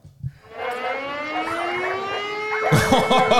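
An air raid siren winds up in a long, steadily rising wail that holds loud, with a burst of louder noise joining near the end.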